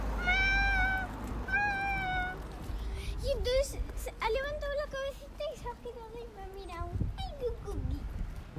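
Two thin, high-pitched kitten meows ring out one after another, followed by several seconds of wavering, squeaky vocal sounds over a faint background hum.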